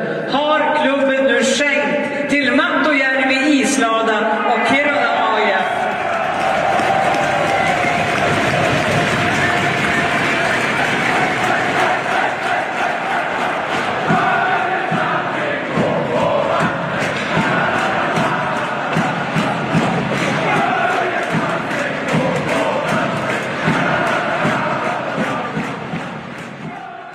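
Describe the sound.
A large crowd in the Mattojärvi ice hall in Kiruna gives a standing ovation at a tribute evening for Börje, loud sustained cheering and steady applause that swells after a few seconds of voices and carries on for over twenty seconds before easing slightly.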